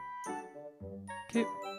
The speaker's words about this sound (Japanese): あ、携帯。